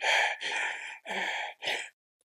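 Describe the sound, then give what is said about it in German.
A voice mimics breathing trouble: several forceful, breathy gasps in quick succession, loud, ending abruptly into silence. “das ist jedes Mal wieder ein extrem unangenehmes Gefühl, wenn eine Katze halt dann lang nicht einatmet”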